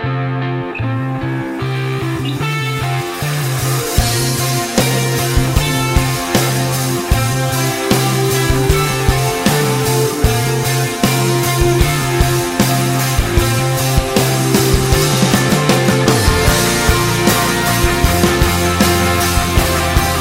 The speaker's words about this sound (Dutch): We gaan naar het lied luisteren en ik zou zeggen, zing het uit volle borst mee.